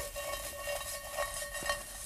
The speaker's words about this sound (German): Wir haben den Tofu in der Pfanne, der muss noch ordentlich knusprig werden.